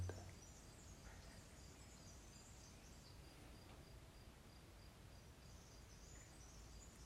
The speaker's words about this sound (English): Taking a few moments here just to listen to the soundtrack of the present moment. The crickets chirping, the birds singing the gentle howl of the wind.